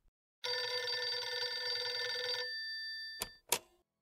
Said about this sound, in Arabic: في صباح الثامن من نوفمبر تشرين الثاني عام 2000 يرن هاتف